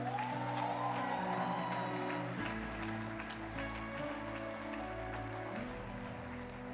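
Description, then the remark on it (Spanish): An audience applauds steadily for several seconds, a dense crackling clatter of many hands, with sustained low keyboard chords holding and shifting underneath. The applause is offered to God. “No, si el aplauso es para Él, dalo con excelencia.”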